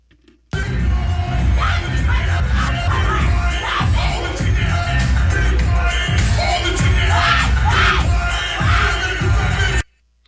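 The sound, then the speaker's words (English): A loud, dense crowd roars and shouts over thumping, pulsing bass music, heard behind a woman's phone call, the racket steady for about nine seconds before cutting off abruptly. “And I like the music is just pumping.”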